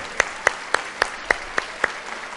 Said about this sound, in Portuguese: Agora pode mostrar o slide. 77 milhões. É, digno de aplaudir mesmo.